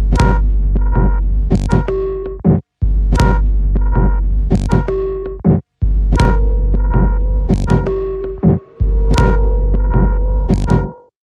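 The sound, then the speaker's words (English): A loud, throbbing electronic film score drone from a Fincher film, with a deep sustained low end and pulsing percussive hits, building in repeated phrases with brief abrupt dropouts, no voices. “have done the music to Fincher's last three films, and while their brilliant work won an Oscar for The Social Network, what they do here far outstrips everything that they've done before.”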